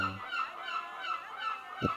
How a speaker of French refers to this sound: Alors, alors on va faire honneur aux mouettes. Hein. Elles sont là, les mouettes.